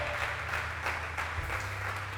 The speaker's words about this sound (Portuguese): Dá um aplauso a ele, pelo amor de Deus.